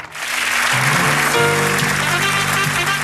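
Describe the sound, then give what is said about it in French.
Dense, steady applause from a crowd fills the whole moment, loud, with sustained musical tones rising underneath partway through, at the final broadcast of the French private TV channel La 5 before it went off air. “Des applaudissements, une éclipse, puis l'écran noir, l'épilogue tragique d'une chaîne qui avait pourtant démarré en fanfare 6 ans auparavant.”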